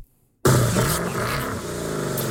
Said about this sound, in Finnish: Toihan on Mustangin ääni. Kyllä. Mustangi tuli lahjaksi.